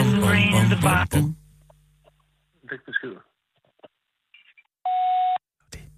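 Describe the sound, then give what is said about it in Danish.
A voice speaks briefly, then after a pause comes a single steady electronic beep lasting about half a second, a voicemail answering machine prompt to leave a message, with faint clicks before it. “Er jeg i gang med at lægge besked nu,”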